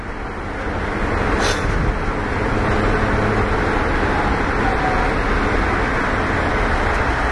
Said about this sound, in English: All right. We in traffic now.